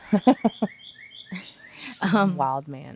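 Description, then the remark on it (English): Faint, high bird chirps repeat in quick short bursts in the background, while a person laughs and speaks briefly. “Um, you guys can hear the birds in the background,”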